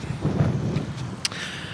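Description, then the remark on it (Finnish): Wind buffets the microphone, making a steady low rumbling roar that swells and dips, with a brief sharp pop near the end. No one speaks. “voi helvetti mikä tuuli.”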